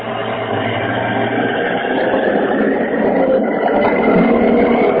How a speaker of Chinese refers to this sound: 师傅， 我以为你坐飞机上天了呢。 你 你们家边上的飞机这么响，嗯，我告诉你 嗯，楼下过车呢